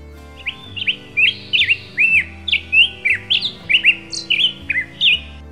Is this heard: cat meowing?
no